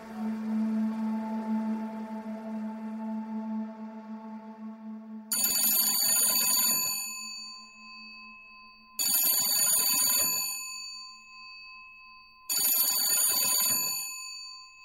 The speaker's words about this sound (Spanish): remordimiento es semejante al repique insistente de esa campana de teléfono.